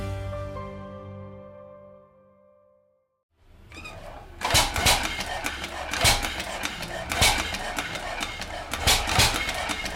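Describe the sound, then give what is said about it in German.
A sustained musical tone fades into a moment of silence, then the engine of the world's first series-production motorcycle runs with a loud, rough, rhythmic chugging, heavy bursts repeating roughly every second. “Das erste Serienmotorrad der Welt”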